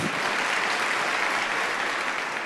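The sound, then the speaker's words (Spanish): A church audience bursts into sustained applause for the Lord during a sermon, a dense, steady wash of many hands clapping at once with no pauses, holding its loudness throughout. “Dale un aplauso al Señor, porque Él tiene cuidado de ti.”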